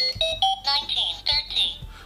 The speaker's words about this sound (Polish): Teraz właśnie włączyłem alarm, bo dolnym przyciskiem włączamy i wyłączamy alarm. Jeżeli alarm jest wyłączony, to nie słyszymy dźwięku.